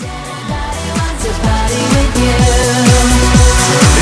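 A loud, upbeat pop dance track plays on the radio with no talking, driven by a steady thumping beat, swooping synth bass drops and bright layered synths and vocals.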